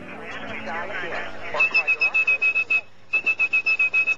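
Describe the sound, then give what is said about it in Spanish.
A steady high-pitched whistled tone, pulsed in rapid rhythmic bursts in two series with a short pause between, imitating a telephone switching signal to fool a telephone exchange, following a stretch of muffled background talk. “Este es el sonido de un documental en el que … mostraba cómo silbando engañaba a la centralita”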